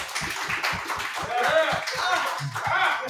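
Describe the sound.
A round of applause from a small group, rapid overlapping claps that stay steady and fairly close for a few seconds, with a few voices and light laughter mixed in.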